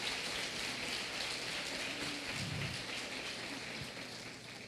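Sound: audience applause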